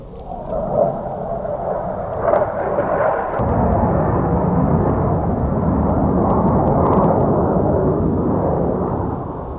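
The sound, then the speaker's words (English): A loud, sustained fighter jet roar fills the scene as it passes, a dense rumbling wash that swells and then holds steady overhead, drowning out everything else. “Um, as soon as this fighter jet passes, I want to ask you.”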